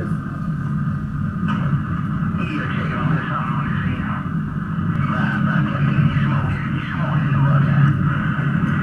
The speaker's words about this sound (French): ce qu'on entend, c'est ce qu'on a capturé de fréquence, dans, les fréquences. Euh, c'est les captures radio